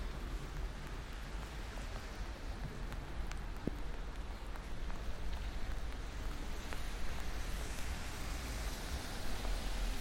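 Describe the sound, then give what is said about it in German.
Steady rain patters and hisses on the uncovered part of the Schlesisches Tor U-Bahn station platform, with scattered sharper drops and a low rumble of traffic underneath. No one speaks. “Und es regnet. Regen am schlesischen Tor.”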